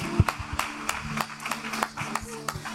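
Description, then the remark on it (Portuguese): An audience claps for the Lord in a steady, even rhythm, about three sharp claps per second, with a low sustained hum running underneath throughout. “Aplauda o Senhor.”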